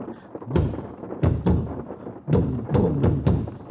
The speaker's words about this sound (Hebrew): ניגשה חומפוסה לחלום, הסיטה את הווילון, ומה ראתה בחוץ? ברד ירד, היכה בגג, הקיש על הדלת, ניתח על התריסים, אבל בפנים חם ויבש, טוב ונעים.